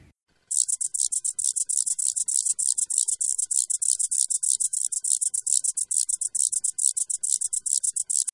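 A red-winged grasshopper crackles its wings in flight (crepitation), a fast, dry, rattling burst of clicks that runs steadily for several seconds, fairly loud, with no voices.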